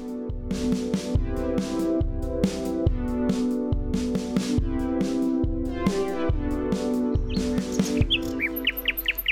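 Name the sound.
nightingale singing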